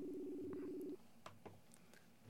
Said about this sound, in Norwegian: Så jeg tror vi ringer denne unge mannen det ble altså live fra karantenen. Nå ringer vi opp her nå.